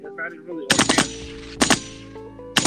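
Sharp, loud gunshots crack in a rapid cluster, then single blasts follow at intervals, each trailing off with echo. A brief faint voice is heard just before the shooting starts.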